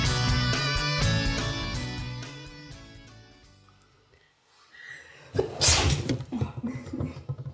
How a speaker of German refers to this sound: Ich musste die ganze, ich musste die ganze Zeit fast niesen.